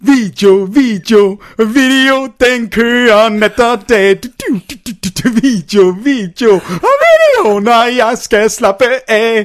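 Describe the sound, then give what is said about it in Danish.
A man sings the chorus of a classic 1980s Melodi Grand Prix hit, an upbeat pop song, solo, unaccompanied and loud, with lively repeated phrases and a few held notes over about ten seconds. “Og det var, at jeg skulle synge en lille sang.”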